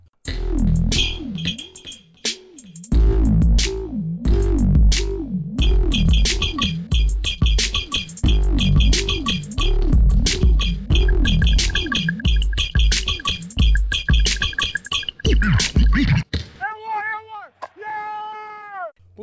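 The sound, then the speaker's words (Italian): A loud, busy intro jingle plays for about sixteen seconds with a steady beat and bright melodic lines, then closes with a few short meow-like cries. No one speaks over it. “Come sempre lo sapete, precedenti, cosa ci aspettiamo dalle gare, cosa noi andremo a guardare gara per gara, tutto questo ormai dopo la sigla.”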